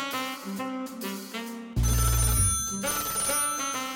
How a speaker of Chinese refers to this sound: 就在汪喵侦探认真看着新闻时，突然秘密基地的报案电话响起来了。